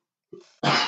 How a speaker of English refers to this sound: bless you Thank that was a cough not a sneeze